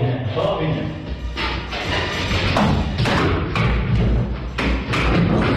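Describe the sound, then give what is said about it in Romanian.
Heavy hoof thuds of a horse coming down the stairs from an apartment in Satu Mare clatter in an uneven series of loud impacts, about seven or eight in a few seconds, over a constant murmur of background voices and noise. “Asta e un cal care coboară pe scări”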